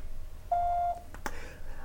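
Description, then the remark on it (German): A single steady electronic beep, the signal tone of a feedback telephone line before callers record their message, lasting under half a second and clear against a quiet background, followed by a brief click-like burst. “Hier der Signalton.”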